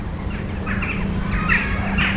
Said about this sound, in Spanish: los cuervos se pelean por un buen lugar en la copa de los árboles.